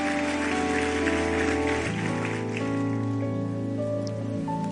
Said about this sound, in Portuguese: Aplauda Ele, vamos ficar em pé, vamos embora.